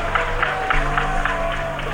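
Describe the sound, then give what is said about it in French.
A stadium crowd applauding after Michael Leina misses a penalty for France in a semi-final, with the score at 9-0: a dense, steady wash of clapping and crowd noise that holds at an even, moderately loud level throughout, with no clear voices standing out. “Si les gens ont applaudi l'échec ou applaudi le fait qu'il ne méritait pas de le réussir.”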